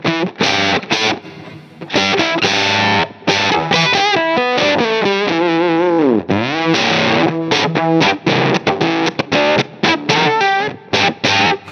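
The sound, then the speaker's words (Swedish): Heavily distorted electric guitar played through an effects pedal, chopped into loud, stuttering percussive bursts with brief gaps and a warbling pitch swoop midway, heard alone without talking. “Det blir väldigt percussivt.”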